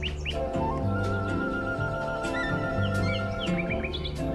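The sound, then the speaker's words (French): Three common nightingales sing very loudly about 70 metres away, a quick run of varied chirps, whistles and trills, among many other bird species, over a steady low droning hum that fills the background. “C'est un rossignol, ça On entend qu'il chante très fort, c'est un rossignol, mais il y a beaucoup d'espèces en même temps.”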